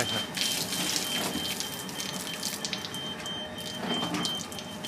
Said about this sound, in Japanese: 今牛がおしっこしました